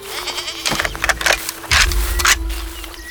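goat bleating

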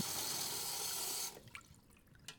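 water running

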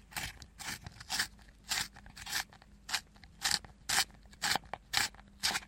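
pencil being sharpened

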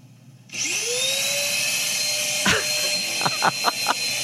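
vacuum cleaner running

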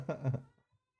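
cat meowing

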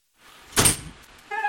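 door opening

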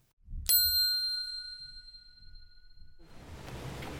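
bell ringing

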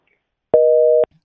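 telephone busy tone

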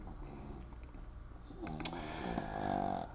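snoring

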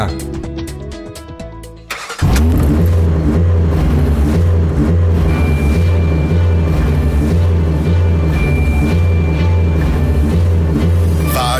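car engine revving

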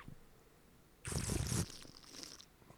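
sipping wine

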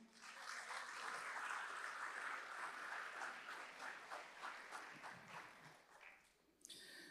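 audience applauding

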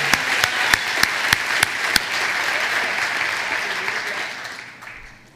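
audience applause

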